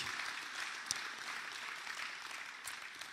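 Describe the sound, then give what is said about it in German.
An audience applauds steadily for two pastors. A dense wash of many hands claps at an even level for the full few seconds, with a couple of sharper individual claps standing out and no voices. “Habt ihr einen Applaus für die beiden?”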